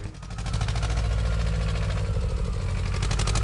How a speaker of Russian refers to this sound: Я уже завел свой трактор. Погнали. Погнали.